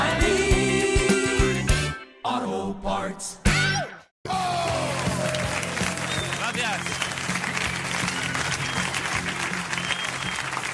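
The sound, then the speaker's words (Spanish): Loud, wavering goatherd-style yells ring out in a few bursts after a short musical passage, then give way to sustained applause and cheering from a crowd. “O sea, ya, has hecho gritos cabreros, silbidos, toda la ofensiva, ya aplauso lento.”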